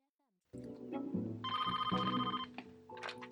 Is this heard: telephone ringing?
yes